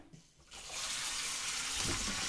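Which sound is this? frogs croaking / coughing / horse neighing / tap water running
tap water running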